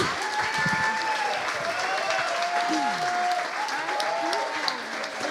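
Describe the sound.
An audience applauds steadily, a dense wash of many hands clapping at an even, sustained loudness, with faint voices and tonal sounds threaded underneath.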